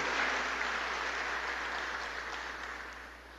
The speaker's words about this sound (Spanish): Yo quisiera que diéramos un aplauso al Señor por las 27 comunidades de nuestra parroquia.